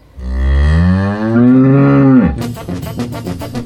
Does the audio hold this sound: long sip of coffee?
no